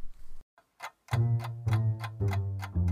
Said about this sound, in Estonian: on hommikune aeg ja tiksub kell.